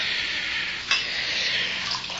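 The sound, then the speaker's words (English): A drink pours steadily into a glass with a continuous, hissing trickle, broken by a brief clink partway through and another light knock near the end. No one speaks. “You can pour me a drink, too.”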